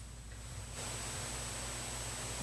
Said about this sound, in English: But do you hear any static? I mean, now I could give you static.